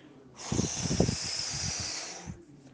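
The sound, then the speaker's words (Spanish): A person blows hard and steadily into the mic, a loud, breathy whoosh lasting about two seconds, with low rumbling puffs pulsing underneath before it cuts off. “Ah, soplaré y soplaré, y tu casa derrumbaré, te comeré despacito.”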